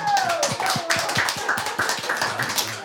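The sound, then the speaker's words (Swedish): A group applauds with steady, dense clapping that stays loud for about three seconds, and a thin high whistle-like tone glides downward near the start. “En stor applåd”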